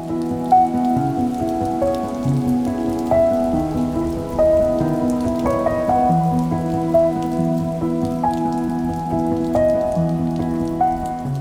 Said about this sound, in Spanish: Durante la noche la tormenta azotó las ventanas de la alcoba y tuvo un mal dormir.